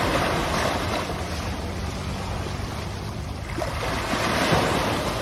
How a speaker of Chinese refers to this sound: 那来看一下接近出海口的。对，这就是涨潮的时候才有可能的，因为这个浪一直往岸边打，也就是它应该已经涨到一个程度了。